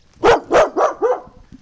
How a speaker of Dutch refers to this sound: ja, de hond slaat aan, de deur zwaait open.